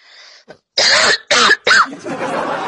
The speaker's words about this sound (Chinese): 老妹儿，你能不能不对着麦克风咳嗽